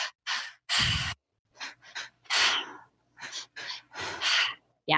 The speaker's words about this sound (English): And so the breath pattern that I love using is called the triactive breath. So it's the one that you've done you explained it on the show so it's it's in through the belly up into the chest and out through the mouth so it sounds like this